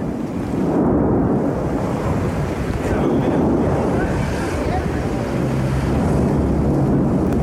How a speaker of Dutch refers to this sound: Ik eh, zag een filmpje en daar hoorde je de vulkaan ook, waar, waar jij net over had. Eh, even een klein stukje luisteren. Is dus dit.